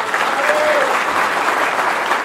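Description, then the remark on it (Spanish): Steady, dense applause from an audience for a pre-candidate from the province of Buenos Aires, Argentina, a continuous loud clatter of many hands clapping with a faint whistle-like tone briefly rising through it. “Los aplausos para la precandidata candidata a de la provincia de Buenos Aires.”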